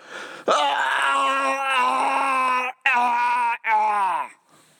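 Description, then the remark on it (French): A voice imitates a person yelling while vomiting: a loud, strained, drawn-out yell, breaking into three close bursts, the last sliding downward into a groan. Forceful, with no other sounds. “Mais j'ai remarqué, il y a vraiment beaucoup, beaucoup de monde qui, lorsque vient le temps de vomir, en même temps qu'ils vomissent, se sentent le besoin de crier, d'ajouter au bruit”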